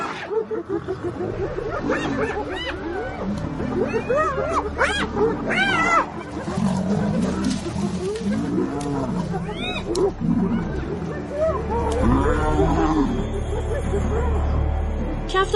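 A chaotic fight between hyenas and lions: continuous snarling, growling and roaring layered with high yelping whoops and cackles, loud, with no pause across the whole stretch.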